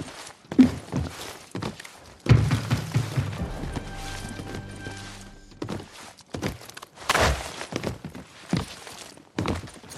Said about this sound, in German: Hinter mir, ne? Ja. Ich hab deine Schritte